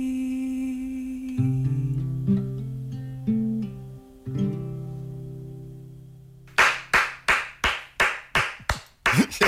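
A short stretch of soft sustained musical tones gives way to about eight loud, sharp hand claps in a steady, evenly spaced rhythm, with no one talking.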